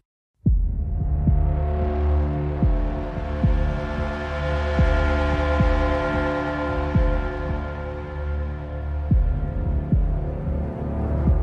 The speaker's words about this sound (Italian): Assolutamente, è un gioco da scoprire, direi di cominciare a partire calandoci nell'atmosfera, ascoltandoci una delle tracce della colonna sonora.